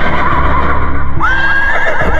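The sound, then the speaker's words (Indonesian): A voice mimics a horse's whinny: one sustained, quavering, low, bass-heavy neigh with a wobbling pitch, loud, lasting about two seconds with no other talking. “Aduh, kayak kuda ya? maksudnya kayak tapi gitu. lebih ngebas”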